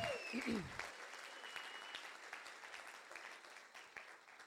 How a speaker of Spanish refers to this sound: Si tú lo crees, dale un aplauso fuerte a Jesucristo. Amen.